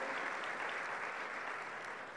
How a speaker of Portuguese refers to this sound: Você pode aplaudir o Senhor por essa promessa na sua vida? Glória a Deus.